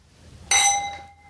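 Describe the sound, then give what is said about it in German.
A single bright clink of glasses touching as a group of women toast, ringing with a clear high-pitched tone that fades over about half a second. No one speaks. “Mädels, lasst uns mal anprosten. Prost.”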